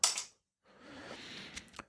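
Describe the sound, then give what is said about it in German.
A sharp rattle of dice, then a brief pause before they tumble and clatter across a hard tabletop, ending with a couple of distinct clicks as they settle. Fairly quiet, no voices. “dann würfel ich das und jetzt liegt hier eine 2 und eine 9”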